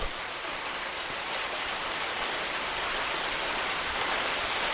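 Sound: rain falling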